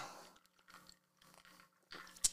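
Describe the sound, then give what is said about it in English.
Quiet mouth noises of someone sipping Dry Fly vodka from a glass: a few soft slurping bursts spaced apart, ending with a brief sharp clink, with no talking. “as i take another sip of my dry fly, dry fly vodka”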